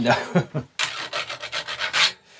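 Tools at work early in the morning while it is still dark outside: a run of rhythmic rasping, scraping strokes, about a dozen in quick succession, bright and moderately loud, with no voices.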